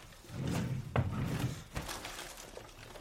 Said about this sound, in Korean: 야, 거기 뒤쪽 서랍 좀 찾아봐.